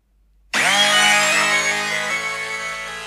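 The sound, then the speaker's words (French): Instrumental music starts abruptly after a brief silence, with a dense, buzzing, distorted wall of sustained synth tones that stays loud and steady, with no vocals. “Je l'écoute en ce moment, j'écoute beaucoup, t'as vu donc lui, c'est vraiment, il y a pas forcément de paroles ou quoi que ce soit, mais c'est un mood, tu vois, c'est très très beau.”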